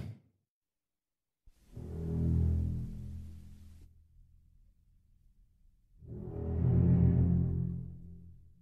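Ominous shark-film theme music: deep, menacing strings swell up loudly twice, with a quieter rumbling stretch between the surges. No one speaks.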